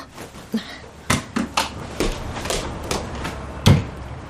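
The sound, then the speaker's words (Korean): A car door is unlatched with a few sharp clicks and knocks as someone gets out of the car, followed by a solid thud as it shuts, with no one talking. “차문을 열고서 밖으로 나갔다.”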